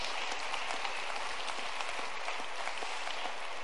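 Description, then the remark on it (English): An audience claps their hands in praise of the Lord, a dense, steady wash of applause, many overlapping claps forming a continuous crackling sound with no voices, holding even in loudness throughout. “Clap your hands to the Lord and let's give Him praise.”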